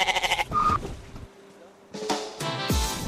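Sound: goat bleating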